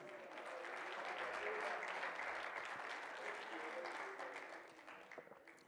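A church audience clapping hands in praise during a morning service, a dense, sustained burst of applause, steady and loud for several seconds before thinning out into scattered claps at the end.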